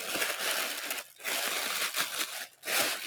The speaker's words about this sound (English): All right. Pulling it out. It's wrapped in white tissue paper.